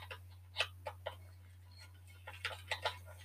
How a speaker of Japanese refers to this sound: まあ、今流しているのは、函館本線の、えーと小樽から札幌へ向かう途中の普通電車の様子を流しながらやっています。